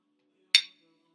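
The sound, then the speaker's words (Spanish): A single bright, crisp clink of drinking glasses holding vodka touching in a toast, with a short ringing tail that fades within a fraction of a second; otherwise quiet. “Salud. Salucita, porque vamos a hablar de alcohol.”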